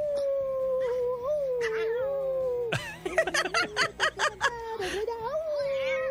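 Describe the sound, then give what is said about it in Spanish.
A pet female dog greets its owner arriving home with a long, wavering, high-pitched howl that rises and falls like singing and sounds almost cat-like, followed by a burst of choppy laughter. “y pues mi perrita me escuchaba diario, diario, diario y así creció y pues ahora cada vez que llego a la casa me, me saluda con un cántico que dice más o menos así.”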